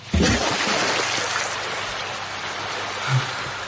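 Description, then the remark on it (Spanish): A loud splash as people jump into the water, followed by a steady wash of churning, sloshing water that carries on for several seconds with no voices. “De pronto, Splash, la chica de Elvic...”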